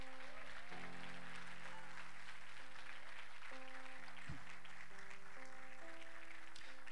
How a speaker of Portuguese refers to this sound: Aplauda ele, porque ele é fiel.